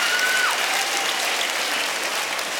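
A crowd claps steadily throughout, a dense, sustained wash of applause at fairly even loudness, with a brief whistle-like tone sliding downward near the start.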